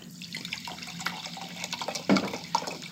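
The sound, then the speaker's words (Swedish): Liquid pours steadily from a bottle into a glass, a gurgling trickle with a brief louder splash near the end; no one speaks. “Det rinner i alla fall inte bredvid.”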